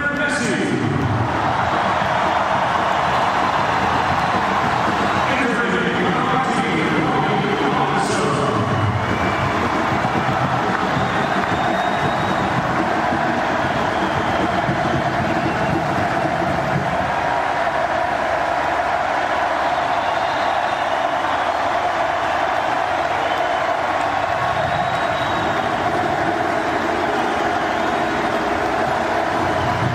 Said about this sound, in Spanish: Vean cómo lo vacionan cuando sale de cambio. O quiero decir, escuchen.